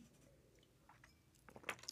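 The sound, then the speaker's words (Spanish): A quiet sip of wine: soft, wet mouth sounds and slurping, ending in a few brief clicks and a gulp, with no talking. “déjenle hecho otro traguito al vino.”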